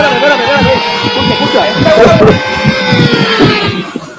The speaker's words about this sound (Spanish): Escuchate la guagua. Mira.